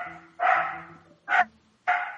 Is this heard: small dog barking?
yes